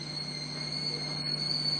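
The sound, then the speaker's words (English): A tea kettle whistles with a steady, shrill high-pitched tone that holds throughout, fairly soft, over a low constant hum, with no voices. “So I hear the tea kettle.”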